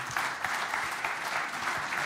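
Steady audience applause for a speaker being introduced, a dense wash of many hands clapping at a fairly even level throughout, with no voices standing out above it.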